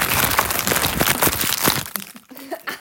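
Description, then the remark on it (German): Plastic nut snack packaging crinkles and crackles loudly for about two seconds as it is being opened, a dense run of sharp rustling crunches, before it quiets and a voice briefly speaks. “Oh, scheiße, wie geht das aus? Das ist wie eine Zigarettenpackung.”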